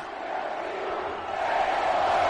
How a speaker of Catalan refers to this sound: Té, té opcions... El públic cridant...